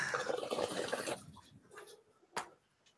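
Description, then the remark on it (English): Water pours while someone waters houseplants, for about a second in a soft, hissing splash, then thins to faint trickles and a brief splash near the end. Quiet, with no voices. “So that noise you can hear occasionally, if you're listening to this audio only, is uh, I'm watering my plants.”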